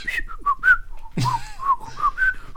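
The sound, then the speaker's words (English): Someone whistles a bouncy pop melody in a quick run of short, clear notes that hop up and down in pitch, briefly interrupted by a breathy burst partway through. “that sounded exactly like it.”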